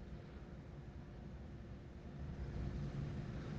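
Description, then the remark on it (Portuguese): A steady, low, muffled rumble of engine and road noise from inside a moving car, swelling slightly toward the end, with no one talking. “Eu tô no carro.”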